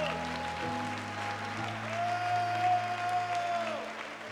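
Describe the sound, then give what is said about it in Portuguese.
An audience claps in praise of the Lord in a steady, dense wash of applause that holds for several seconds over sustained low keyboard chords and a brief high held note. “Dê um brado ao Senhor e aplaudo neste lugar e adore.”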